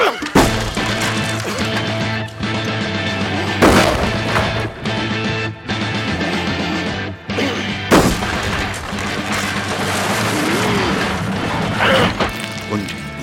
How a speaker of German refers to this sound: Bumm krachte die Wand ein und wir konnten in sein Zimmer sehen.